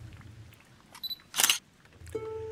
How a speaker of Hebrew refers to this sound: הצליל המוכר של הבזק מצלמה.